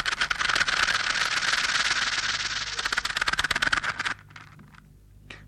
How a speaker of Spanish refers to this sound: Las víboras de cascabel tienen unos anillos en la cola. Esos son los que suenan como sonaja.